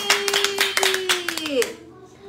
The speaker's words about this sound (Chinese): 来宾请掌声鼓励鼓励。